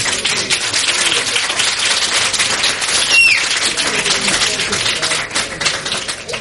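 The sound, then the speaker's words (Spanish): An audience applauds steadily, a dense wash of many hands clapping at an even, sustained loudness throughout, with no talking heard over it. “aplauso unánime de los suspendidos.”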